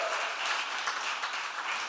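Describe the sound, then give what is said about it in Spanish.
An audience applauds God steadily, a dense wash of many hands clapping at an even, sustained level with no clear individual claps standing out. “Vamos a darle un aplauso a Dios porque en Dios está la victoria.”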